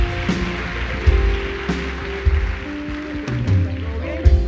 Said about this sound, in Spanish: Denle un aplauso fuerte a Dios acá.